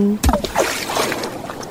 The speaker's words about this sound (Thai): ถ้าเอาเสียงคลื่นที่หาดทรายแก้ว เข้าเครื่องแปลภาษา เขาคงจะบอกเราว่า มาเที่ยวที่นี่สิ หาดทรายขาวน้ำทะเลใสรอคุณอยู่